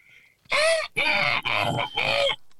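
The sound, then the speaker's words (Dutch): A person imitates a seagull's cry: four loud, shrill, nasal squawks in quick succession, with no other talking around them. “En, en meeuwen, die kunnen ook inderdaad een soort...”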